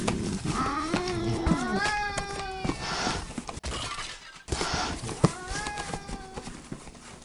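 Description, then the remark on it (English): A cat yowls loudly in two drawn-out bursts amid clattering and crashing, as objects are knocked over and break in a noisy, chaotic scuffle. “These sabo cats just get in here no matter what we do”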